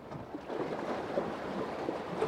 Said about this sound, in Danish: Fy for søren, af for søren, nu er jeg ude på badebroen. I kan høre bølgerne.